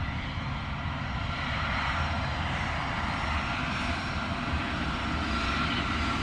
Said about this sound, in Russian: Самолет выходит на взлетную полосу, набирает разгон